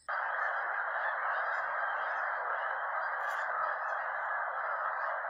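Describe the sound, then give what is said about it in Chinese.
A dense, unbroken chorus of thousands of wild geese gathered on a lake, overlapping honks merging into a loud, steady roar that holds at the same level throughout, with no voices. “啊，有没有听到鸟叫的声音？”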